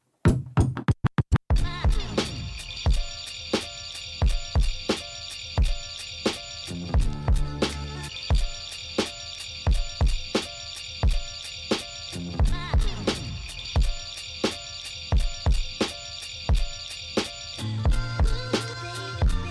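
An unreleased hip-hop track, a featured collaboration from an album, opens with a quick burst of turntable scratching, then settles into a steady, loud beat of punchy drum hits over sustained backing, with no vocals.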